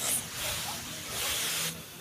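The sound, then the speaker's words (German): A fire extinguisher sprays in a steady, forceful hiss that swells twice over a couple of seconds, loud, with no clear talking over it, as a staff member of a Caritas facility tries out the extinguisher for the first time. “War das Ihr erstes Mal so mit Feuerlösch?”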